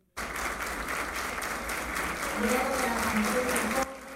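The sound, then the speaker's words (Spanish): The Federación Dominicana de Comerciantes applauds the president, expressing total support for his migration policy: a dense crackle of many hands claps steadily for about four seconds, starting abruptly and holding at a fairly loud level, with faint voices murmuring underneath near the end. “En este escenario, la Federación Dominicana de Comerciantes, con aplausos, le externó al presidente su total respaldo a su política migratoria.”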